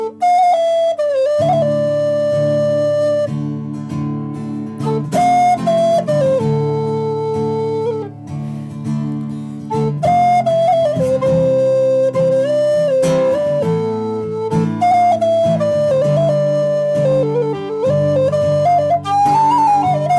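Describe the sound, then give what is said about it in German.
A flute plays a bright, flowing melody of sustained notes and quick runs over a steady chordal backing, loud and continuous throughout with short breaths between phrases. “Aber jetzt kommt die Flöte.”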